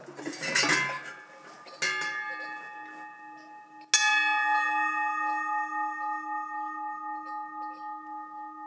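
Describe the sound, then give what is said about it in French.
Bronze livestock bells struck three times, fairly loud, each clang leaving a bright metallic ring; the final strike hums on and slowly fades. No voices. “Vous avez les cloches à bronze là.”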